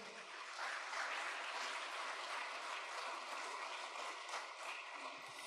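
A crowd applauds steadily to the name of the Lord, dense clapping from many hands filling the space at an even loudness for several seconds, with no voices standing out.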